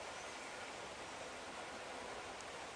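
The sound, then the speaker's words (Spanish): Steady rainfall at Betel makes a soft, continuous hiss with no distinct drops standing out, fairly quiet and even throughout, with no voices. “En este momento llueve aquí, escuchas, en Betel.”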